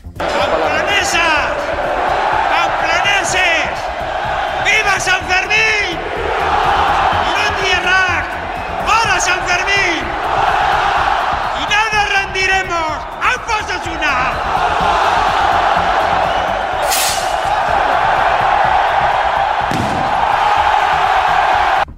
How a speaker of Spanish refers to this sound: Con estas palabras y este característico sonido se ha dado la bienvenida a San Fermín 2023, un multitudinario chupinazo en la plaza del ayuntamiento que ha lanzado el presidente de Osasuna, Luis Sabalza.